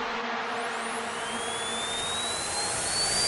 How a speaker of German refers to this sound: Oh, was ist das denn? Unglaublich, oder? Die hochfrequenten Töne eines Zahnarztbohrers sind wie geschaffen dafür, das Tröten einer Vuvuzela auszulöschen.